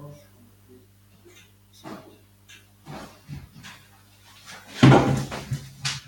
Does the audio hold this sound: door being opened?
yes